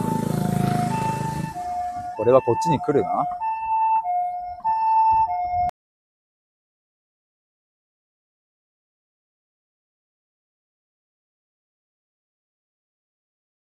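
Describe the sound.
An ambulance siren sounds in steady two-tone alternation as it passes by, fairly loud, with traffic rumble beneath and a man speaking briefly over it before the sound cuts off.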